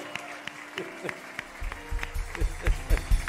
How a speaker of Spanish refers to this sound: Vamos, darle ese fuerte aplauso a Jesús. Eso. Están tímidos. Nada, nada. Acción de gracias. No se vale, no se vale ese aplauso fuerte, fuerte. Ese aplauso, vamos, vamos, vamos, vamos.